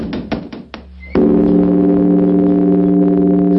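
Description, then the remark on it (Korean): At dawn at a Buddhist mountain temple, before the morning service, a few quick wooden knocks give way to a single heavy strike of the large temple bell, its deep, loud hum sustaining steadily and spreading over the mountainside to the end, with no voices. “범종의 기인 울림이 산자락에 퍼지고 삼남한상이 그 소리에 하나가 됩니다.”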